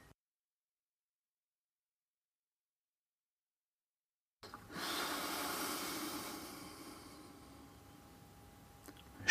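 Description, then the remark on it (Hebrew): After several seconds of silence, a single long, hollow breath rushes through a snorkel tube worn with a diving mask, loud, then slowly fades, with a faint click at the very end. “שנורקל, מסכה וקצב נשימה.”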